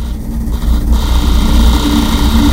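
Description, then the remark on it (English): A closet in a house rattles and shakes with a continuous, loud, low rumbling vibration caused by loud activity outside the house, with the windows closed; it holds steady throughout, with no voices. “That's not that's not a jackhammer or rivet bust or anything like that. That is my closet shaking.”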